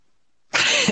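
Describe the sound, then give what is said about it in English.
A single loud dog bark bursts out after a moment of silence, sharp and rough, with no voices around it. “Got that goddamn dog in the bark round.”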